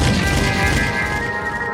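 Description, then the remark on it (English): A loud gunshot sound effect booms and rumbles over a ringing tone and dense low-end music, sustained across the whole moment with no clear pause and no voices. “Gunshot is slick.”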